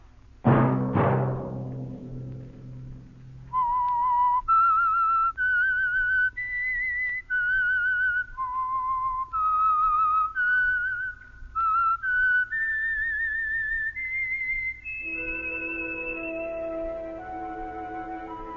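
The whistled theme of the radio program The Whistler: a clear whistled melody of distinct held notes stepping up and down, following a brief booming musical chord and ending as a sustained orchestral chord swells in. No one speaks.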